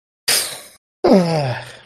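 A loud, breathy inhale into the microphone, a brief pause, then a longer voiced exhale that sinks into a groaning moan, as someone breathes heavily and very loudly into the microphone.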